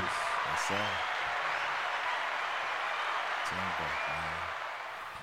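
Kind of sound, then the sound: crowd, hand clapping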